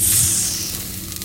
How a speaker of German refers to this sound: Sie nickt, macht das Glas auf und greift nach dem pillenartigen Objekt. Man hört ein leises Zischen.